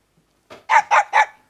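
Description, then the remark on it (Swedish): A quiz team's buzzer button sound effect, the Ytternäs team's, goes off alone: four quick, bright bursts, the first softer and the last three loud and evenly spaced, with a yappy, animal-like bark or cluck quality. “Ska vi lyssna på era knappar igen, hur de låter, så vi minns?”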